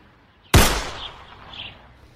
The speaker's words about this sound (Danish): Det næste skud misser.